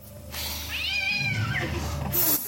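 A loud, drawn-out cat screech in a horror movie jump scare rises and falls in one sustained yowl, set against a low rumbling background and ending with a sharp burst of noise.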